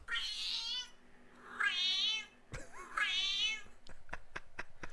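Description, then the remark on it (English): A cat meows three times in a row, each call long and whiny, with short pauses between, followed by a few sharp clicking taps. “I, I think he's more scouse than this cat.”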